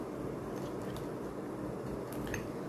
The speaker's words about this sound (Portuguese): Com certeza eu vou escolhendo aqui minhas canetas.